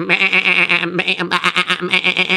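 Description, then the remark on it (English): A goat bleats loudly, a continuous quavering cry that breaks briefly and then carries on in a few wavering, trembling calls with no talking over it. “As I remember, the goats were running all over the place.”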